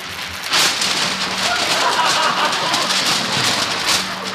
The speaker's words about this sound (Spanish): Estamos, estamos agitando un cartón flexible. Pero vamos a hacer ahora un trueno más cercano.